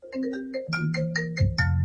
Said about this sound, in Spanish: Suena el teléfono.